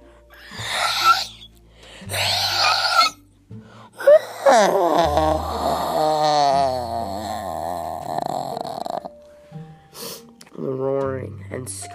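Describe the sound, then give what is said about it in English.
A person vocally imitates a creature's screeching and guttural noises: two short raspy, guttural bursts, then a long warbling screech that rises and falls for several seconds, followed by more strained wailing cries, loud. “screeching and guttural noises. It looked like a bear, but it had an alligator's head.”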